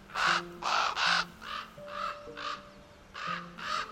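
A raven gives a series of about eight harsh, croaking calls in irregular bursts. The first three are loud, the middle ones fainter, and two more follow near the end.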